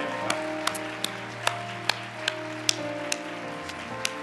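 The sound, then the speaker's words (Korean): Applause welcoming the participants of a Vision Conference, in a slow, steady rhythm: about a dozen crisp claps, evenly spaced roughly every half second, over a low sustained hum of held musical tones. “한번 큰 박수로 환영해 주시기 바랍니다.”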